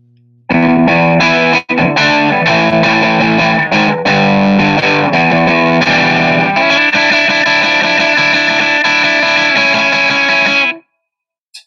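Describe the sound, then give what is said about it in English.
Overdriven electric guitar through an AC30 amp sound on the brown-face setting, playing gritty, sustained chords and riffs for about ten seconds, loud and thick with distortion, then cutting off abruptly into silence. No one speaks. “The brown face, like more of a … kind of sound than uh, normal AC30 channel.”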